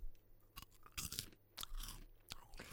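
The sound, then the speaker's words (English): Loud chewing of popcorn: wet, crunchy bites in an irregular rhythm, several sharp crackly bursts over almost three seconds with brief pauses between them. “Uh, excuse me, sir, but uh, could you stop chewing so loudly?”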